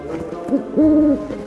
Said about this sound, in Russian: Мама, слышишь? Сова разговаривает